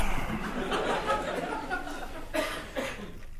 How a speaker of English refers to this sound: You know, I think the greatest reaction a comedian can hope for when recording a live podcast is to have someone cough uncomfortably after the first shitty, unsuccessful improvised dick joke.